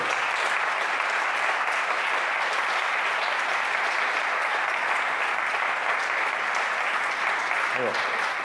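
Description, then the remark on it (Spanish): A full audience applauds steadily for about eight seconds as a platinum record is presented, a dense, loud wash of clapping that holds constant from start to finish with no pauses. “Un aplauso.”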